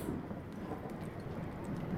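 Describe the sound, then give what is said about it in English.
A steady rush of heavy rain during a night storm in the mountains, with a low, rumbling roar underneath like thunder rolling through the storm, continuous and fairly quiet, with no voices. “Throughout the night, storm rages on.”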